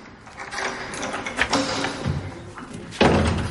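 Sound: door being closed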